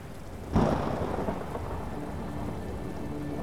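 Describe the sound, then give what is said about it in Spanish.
A sharp crack of thunder bursts in early, then rolls and rumbles away over a steady hiss of heavy rain. No voices are heard. “Cuando se acaban los truenos, cuando desaparecen los relámpagos,”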